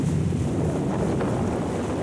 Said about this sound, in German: Und Erdbeben erschüttern die Meere.